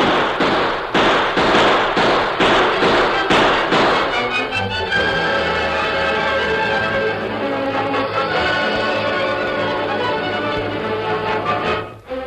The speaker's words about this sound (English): Fellow, look. Down there on the trail. A gunfight in that freight wagon.